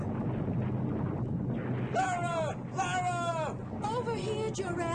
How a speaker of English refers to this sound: Giant buildings toppled like matchsticks. Great transit tubes reared skyward, twisting, bending. Explosions threw debris into the sky for hundreds of miles.